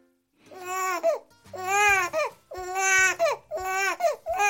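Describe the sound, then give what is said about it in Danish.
An infant cries in four long, rising-and-falling wails with short gasping breaths between them, loud, with no other voices. “En gang har du også grædt sådan her.”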